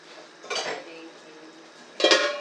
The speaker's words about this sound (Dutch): Volgens mij is dit het moment dat ik de deksel erop moet doen.